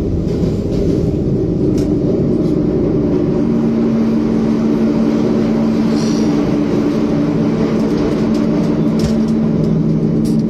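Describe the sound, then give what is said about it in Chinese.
Loud, steady rumble of a subway train in motion, with a dense low roar and a sustained tonal hum riding over it, plus faint rattles and squeaks, with no talking. “宅一点，不要宅在家里，一起坐地铁。”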